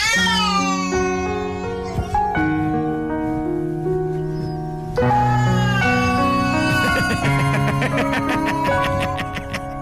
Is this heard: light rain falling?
no